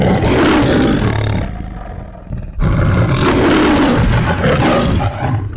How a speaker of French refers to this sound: Léo le lion de la MGM, avec la citation latine Ars Gratia Artis, autrement dit l'art et la récompense de l'art, tout un programme.